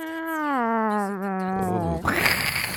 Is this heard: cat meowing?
yes